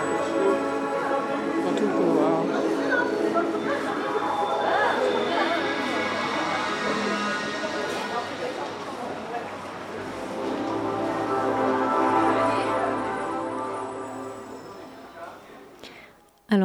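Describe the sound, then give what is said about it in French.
Steady crowd hubbub fills an indoor public corridor with light effects and a mirror, linking two parts of a shopping forum, many indistinct voices chattering at once with a faint tonal hum underneath, swelling slightly and easing off toward the end. “dans un couloir euh, un peu psychédélique euh, qui fait la jonction entre deux parties du forum, avec des jeux de lumière et le miroir.”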